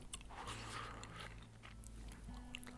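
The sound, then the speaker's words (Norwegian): Wet chewing of gum, steady smacking and squelching bites over a low background hum, with no talking. “Ta ut tyggisen der.”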